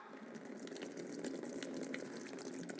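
Water pours steadily into a container and spills over, a continuous gush and splash with no pauses and no voices.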